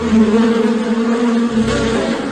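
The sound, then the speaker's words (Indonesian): A dense, steady, loud drone of many bees buzzing together around a beehive, a continuous humming swarm with no pauses and no voices. “Lalu si singa yang matanya agak rabun mendekat ke arah sarang lebah itu ia betul-betul mengira bahwa itu adalah drum.”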